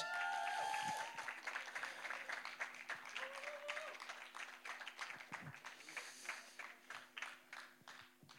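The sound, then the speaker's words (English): An audience breaks into steady applause for several people coming forward, a dense wash of many hands clapping at moderate volume that carries on throughout, with a few brief whoops or voices mixed in. “why don't we give these guys a hand as they come forward?”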